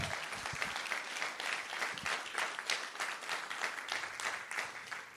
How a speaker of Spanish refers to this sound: ¿Alguien puede dar un aplauso al Señor?